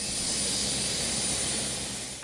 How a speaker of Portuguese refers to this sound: Três helicópteros foram usados para levar os agentes federais até os garimpos, que foram abandonados às pressas.